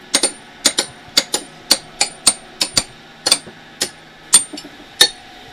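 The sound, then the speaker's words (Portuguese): A hammer strikes metal wedges into slate blocks in a steady series of sharp, ringing taps, about a dozen blows over several seconds, with no voices, splitting the slate into thin sheets in which fossil animals are preserved. “não é ele quem racha os blocos de ardósia em folhas finas onde os animais ficaram preservados.”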